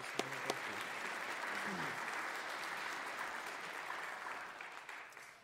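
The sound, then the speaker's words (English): A crowd applauds the worship band steadily for several seconds, a dense, sustained patter of many hands clapping before tapering off slightly at the end. “Let's hear it for our worship band, could we?”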